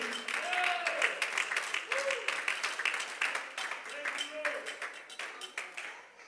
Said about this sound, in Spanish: Si ese aplauso es para el Señor, suelte sus manos y bríndeselo con júbilo.